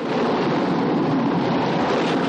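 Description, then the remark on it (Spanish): Loud, steady roar of a stormy sea under a darkened sky, with churning waves and rushing wind crashing continuously against a fragile old fishing boat sailing toward the island of Navarone, dense with no pauses or voices. “Las olas golpean el frágil y viejo barco.”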